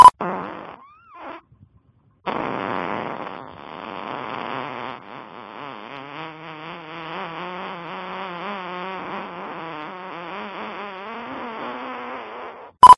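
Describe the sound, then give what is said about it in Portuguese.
A loud, drawn-out fart sent as a WhatsApp audio message, with a buzzy, wavering pitch, preceded by a couple of short sputters and a brief pause, sounding tinny like a phone recording. “ele acorda assim, ele fala, sente só esse peido.”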